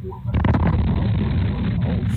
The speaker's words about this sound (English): An explosion rocking a New Hampshire neighborhood. The blast you just heard there was so loud it even shook a doorbell camera.